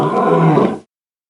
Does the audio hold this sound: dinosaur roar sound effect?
yes